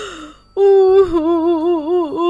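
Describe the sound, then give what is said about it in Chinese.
A human voice imitates a lion crying at a riverbank: after a short soft breath, one long wavering wail rises in and holds for nearly two seconds with a trembling, sobbing pitch. “这时，一头狮子来到河边，哭了起来。”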